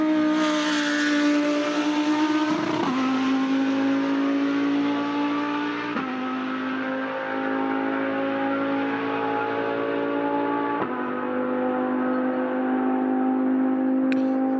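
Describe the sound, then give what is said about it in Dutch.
A Lamborghini Huracan GT3 race car engine, driven by Lamborghini racing driver Jeroen Mul, roars at high revs, its loud harmonic whine rising steadily, with sharp drops at each gear shift, roughly every three to five seconds. “Hij is coureur bij Lamborghini en hij rijdt in de Huracan GT3.”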